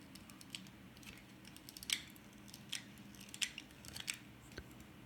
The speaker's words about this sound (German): Tacker. Tacker? Nee. Ein Versuch hast du noch. Das ist ein zurückschnackendes Teppichmesser.